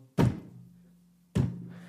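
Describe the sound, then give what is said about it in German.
Two heavy, booming knocks about a second apart, each a deep thud with a low resonant ring that slowly decays, made to imitate the slow stomping footsteps of a T-Rex. “richtiges Stampfen hörst du so um oh. dich herum.”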